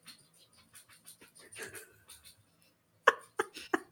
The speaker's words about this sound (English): I'm sorry. I just got a puppy and I'm not used to the background noises in my house. She's over here, of course, like scratching right now. I'm like, shh, I'm recording.